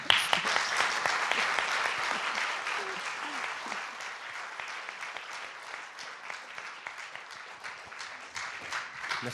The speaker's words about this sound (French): On va commencer par des applaudissements, si vous voulez bien.